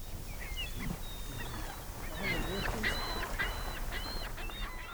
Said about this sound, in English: The birds gather on mudflats just out of the water, or whirl around in tornadoes of feathers and squawking.